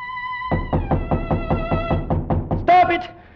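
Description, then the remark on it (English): A rapid, steady series of about ten loud knocks on a door, sounding over a sustained string-like tone and ending with a brief, loud voiced sound. “Of a sudden, there came a knock upon the door.”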